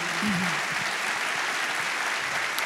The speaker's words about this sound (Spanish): Entonces, levanta un fuerte aplauso a Jesús.